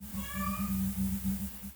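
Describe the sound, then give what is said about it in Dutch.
A cat gives a single long, wavering meow, fairly soft, over a steady low hum. Nobody speaks. “Wat is dat? Dat is een kat.”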